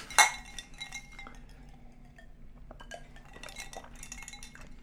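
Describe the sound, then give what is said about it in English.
Two glasses of iced tea clink together once in a toast, a bright, ringing chime right at the start, followed by a few softer, scattered glassy taps and clatters. “Cheers. Cheers.”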